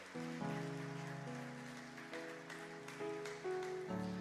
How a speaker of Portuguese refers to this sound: Isso, aplaude o Senhor. Aplaude o Senhor.